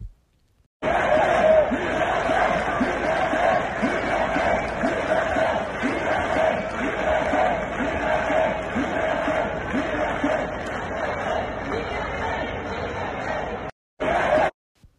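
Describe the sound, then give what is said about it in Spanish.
A large crowd of protesters in Paris, including journalists and human rights activists, shouts in unison against the passing of the Global Security Law, a loud, sustained roar of many voices chanting "freedom" in French, steady for about thirteen seconds before cutting off briefly and resuming. “Ciudadanos de Francia, entre ellos periodistas y activistas de los derechos humanos, protestando en contra de la aprobación de la Ley de Seguridad Global en París, todos alzando sus voces, gritando libertad en francés.”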